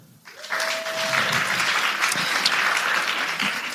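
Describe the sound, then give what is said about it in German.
A live audience bursts into clapping in answer to a host's question asking who among them is gay, a dense, steady wash of many hands that starts abruptly and holds at a fairly loud level throughout, with a brief whistle-like tone near the start. “Wer von euch äh, ist denn gay? Mal einmal klatschen.”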